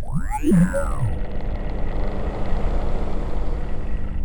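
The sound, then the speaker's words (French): The pump of an ocean float reactivates underwater as it descends toward the ocean floor, at about 1950 metres depth: a brief warbling, sweeping whine, then a steady, muffled low rumble that drones on without any voices. “Let's go réactivation de la pompe.”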